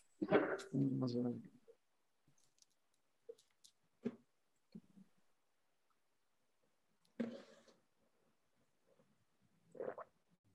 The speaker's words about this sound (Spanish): A ver, espérame, dame, un segundo que aquí se vino a asomar un perro y eh, se pone a ladrar este.